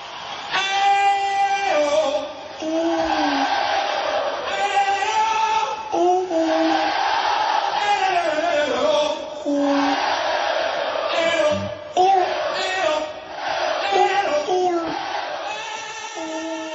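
A baby coos and wails in sustained, tuneful bursts along with a loud rock song that plays steadily throughout, the small voice rising and falling over the music.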